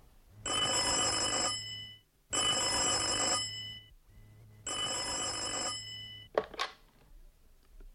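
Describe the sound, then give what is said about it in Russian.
A telephone bell rings at a cottage called Nightingale Cottage, in three long, loud, even bursts separated by short pauses, followed by a brief clattering knock and then quiet. No one speaks. “И я позвонил Элис в эту среду.”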